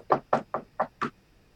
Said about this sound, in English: He said, Oh, please excuse me, I've got an, somebody knocking on the door. I have to answer the door.